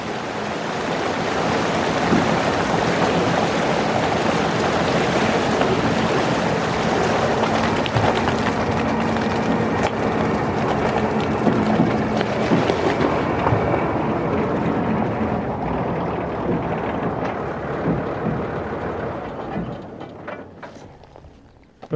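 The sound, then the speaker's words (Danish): A tractor churns through shallow water on the trip back from Vorsø to the mainland, with steady rushing and splashing over a low engine drone. The noise stays loud and continuous, then thins out and fades near the end. “taget turen med traktoren tilbage fra Vorsø.”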